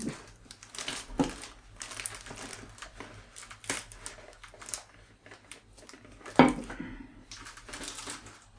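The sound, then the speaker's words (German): Crinkly rustling of plastic film that keeps getting stuck as it is tugged and peeled off while unpacking an item, with irregular crackles and a sharper snap near the end, continuing in uneven bursts without any talking. “Ja, es ist tatsächlich ein bisschen ungünstig, weil die Folie hier irgendwie hängen bleibt.”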